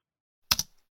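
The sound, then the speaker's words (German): A single firm press of the Enter key on a keyboard after typing a web address into a browser, a quick double click of the key going down and springing back, fairly loud against silence. “Ihr drückt auf Enter.”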